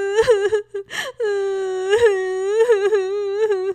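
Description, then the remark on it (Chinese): Loud, drawn-out crying: a high, wavering wail sustained for seconds, broken early on by a few short sobbing gasps, a voice acting out the crying of the Pink Little Bear character in a children's story. “可是粉红小熊仍然哭个不停啊！”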